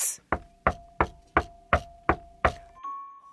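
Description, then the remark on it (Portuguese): Seven sharp, evenly spaced knocks on a door, firm in a steady rhythm, followed by a brief lingering tone as the knocking stops. “Deixou-nos sozinhos, só pode ser engano mas eis que se aproxima o lobo tirano e bate à porta sete vezes.”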